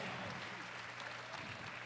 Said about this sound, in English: Let's clap to Jesus for that.